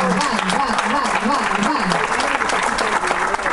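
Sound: audience applause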